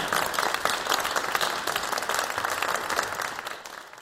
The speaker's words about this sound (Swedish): En varm applåd, varsågoda frågor.